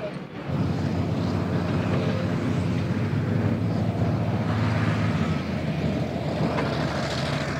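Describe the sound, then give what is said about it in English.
A heavy off-road dump truck works during land restoration, hauling scraped-up material to a disposal site. Its diesel engine rumbles loud and steady throughout with a deep, gritty drone, and faint reversing beeps may sit beneath the engine noise. “Other equipment that we use are uh, off-road dump trucks because then once the material is down, they start to scrape it up and they need dump trucks to carry this off to the disposal site.”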